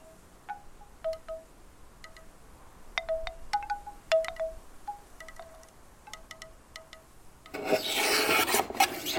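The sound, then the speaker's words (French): A hand plane shaves an ebony violin fingerboard in a luthier's workshop in Forcalquier, in a series of short, squeaky scraping strokes at an irregular pace, ending with a longer, louder rasping pass. No one speaks. “C'est le son du rabot qui est en train de raboter une touche de violon.”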